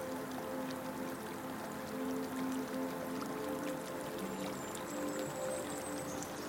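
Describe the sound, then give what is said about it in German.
A small brook babbles and rushes steadily throughout, a continuous wash of flowing water with no pauses, accompanied by a soft sustained tonal hum in the background. “Oder du hörst einen kleinen Bach rauschen und Vögel zwitschern.”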